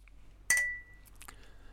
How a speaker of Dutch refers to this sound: Weet je, ik ga gewoon een slok nemen. Nou, maar laten we dan eerst even klinken.